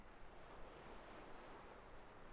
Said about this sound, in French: De légères vagues viennent lécher les pieds.